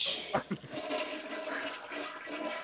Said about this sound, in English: Insert toilet flush now.